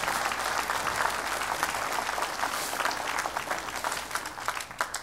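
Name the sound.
audience clapping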